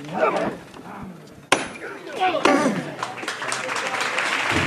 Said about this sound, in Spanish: Arriba ovación.